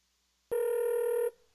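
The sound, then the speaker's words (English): A single steady ringback tone on an outgoing phone call, lasting just under a second, loud and clear with no voices, then it cuts off. “I hope he doesn't answer the phone.”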